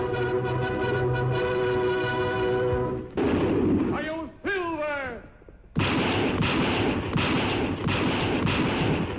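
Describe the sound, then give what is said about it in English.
A sustained brassy chord gives way to a man's shout, then a rapid string of sharp gunshots cracks repeatedly over loud, busy music in the intro of The Lone Ranger, which premiered on ABC TV in 1949. “You know, I don't remember those that many bullets Indian flying in that intro.”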